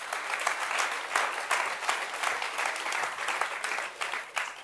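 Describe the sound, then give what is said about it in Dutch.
An audience bursts into applause for God, many hands clapping at once in a bright, continuous patter that holds at a fairly even loudness with small swells throughout. “Kom op, geef God een applaus.”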